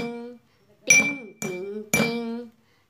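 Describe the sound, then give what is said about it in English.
A triangle is struck three times in an even rhythm. Each bright metallic ting rings over a steady high shimmer, and a low humming voice runs beneath the strikes. “Listen to my triangle.”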